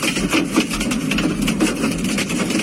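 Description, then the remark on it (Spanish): Hail comes down hard, a dense, steady clatter of countless small impacts pelting surfaces, with a low rumbling roar underneath and no voices. “Así caía ese granizo y también granizaba este martes con fuerza en Gibraleón, en la provincia de Huelva y en Linares, en Jaén.”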